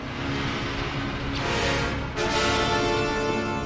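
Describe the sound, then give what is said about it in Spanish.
Heavy, mechanical respirator breathing, a loud hiss that shifts between drawn-out inhales and exhales in a slow rhythm, with no talking. “lo vemos entrar a él, avanzando hacia nosotros, y no escuchamos nada más que su respiración.”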